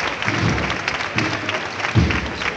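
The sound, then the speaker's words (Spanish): A street crowd applauds steadily, a dense wash of many hands clapping at once, with a few louder swells rising out of the sustained ovation, as the Jesús del Perdón procession float advances head-on along the first stretch of calle Bernabé Soriano. “Pues comenzando en el primer tramo de la calle Bernabé Soriano, el paso de Jesús del Perdón, andando de frente, con poderío, levantando los aplausos, respetable, coincidiendo con el final de la marcha.”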